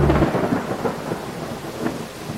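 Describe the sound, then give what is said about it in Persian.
Steady rain pours down while low thunder rumbles underneath, a continuous wash of noise with a deeper roll swelling near the start and again later. No voices. “در این باران تمام ناراحتی ها شسته میشه احساس کنید که چطور این باران تمام رنج ها و سختی ها رو”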